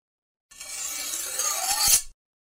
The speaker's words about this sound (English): And how about a slashing or cutting sound for the slashes?